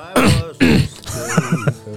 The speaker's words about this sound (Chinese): 这咳嗽，告诉他里头有人儿。